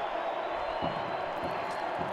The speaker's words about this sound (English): Yep, the biggest cheer is from the Sydney FC fans, and Steve Corica breathes a huge sigh of relief.